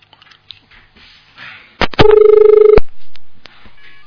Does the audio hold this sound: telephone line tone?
yes